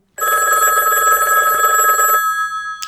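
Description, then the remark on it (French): A telephone rings loudly and steadily for about two seconds, a bright electronic trill, then cuts off briefly before a short beep as an answering machine takes a message. No one speaks. “Il paraît qu'on a reçu des messages sur notre répondeur pendant la pause.”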